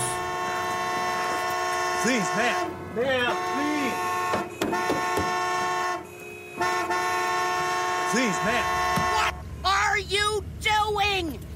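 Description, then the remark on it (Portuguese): A car horn, honked by a woman, blares in long, sustained honks almost nonstop for about five minutes, loud, while people speak over it in short, urgent bursts. “E tem toda aquela comoção, enquanto isso tem uma mulher buzinando, buzinando, buzinando, buzinando sem parar.”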